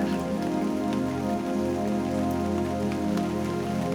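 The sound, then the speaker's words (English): Steady rain pattering on a hard surface, a dense continuous hiss with scattered drip ticks, even in loudness throughout, with no voices. “Listen the sound of the rain.”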